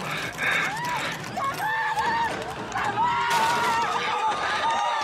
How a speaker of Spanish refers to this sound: Empiezo a escuchar gritos en las calles, sonido de ambulancias y policías.